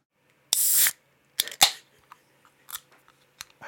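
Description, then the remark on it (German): A can of Lynchburg Lemonade is cracked open: a sharp fizzy hiss of escaping gas, followed by a couple of crisp metallic clicks and a few faint rustles, with no talking. “ich bin jetzt faul zum Mischen, deswegen habe ich mir einfach eine äh, Lynchburg Lemonade Dosen aufgemacht, die ich auch gern mal in den Probenraum mitnehme”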